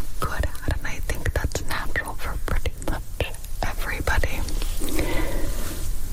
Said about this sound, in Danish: Okay. det lyder... Det er jo ASMR, det her. Ja. Det lyder altså, det lyder super creepy. men det er, jeg ved det godt. Men det er en, en, en søvnteknik.